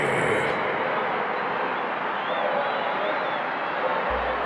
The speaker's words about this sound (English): walked off the field with the crowd chanting behind her.